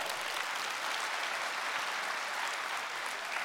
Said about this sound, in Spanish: Darte un aplauso.